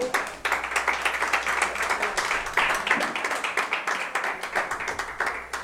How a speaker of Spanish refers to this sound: Dele ofrenda de palmas al Señor pues, para que se me despierte un poco.